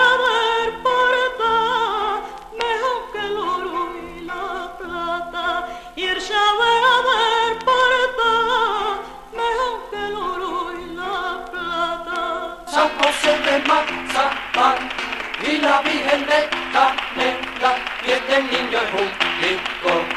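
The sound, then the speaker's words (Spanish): A flamenco zorongo gitano sung as a Christmas carol: an ornamented solo voice sings long wavering lines, then brisk, loud hand clapping joins in a fast steady rhythm as the performance grows fuller. “En la letra que hemos escuchado del zorongo gitano se dice que San José es de mazapán y la Virgen de canela, y este niño es un bizcocho hecho de azúcar morena.”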